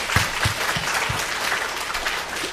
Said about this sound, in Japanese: イエス様に拍手したいと思います。アメン感謝します。